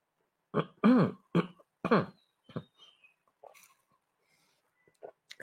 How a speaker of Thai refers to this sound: จิบน้ำนิดนึงนะครับ